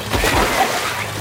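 Water splashes and sloshes in a short, busy burst lasting about a second, fairly loud, with a broad watery rush and no one speaking.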